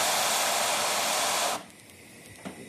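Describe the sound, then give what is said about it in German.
Steam hisses loudly and steadily out of a cooking pot in a kitchen for about a second and a half, then cuts off abruptly, leaving quiet room tone with a faint clink. “Und dann kann man den Dampf auch wieder rauslassen.”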